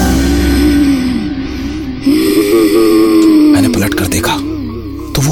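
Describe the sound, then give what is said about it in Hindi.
A deep, menacing growl rumbles continuously for several seconds, loud, rising and falling in pitch before breaking into harsher, rasping bursts near the end. “तभी पीछे से वो गुर्राने की आवाज फिर सुनाई थी”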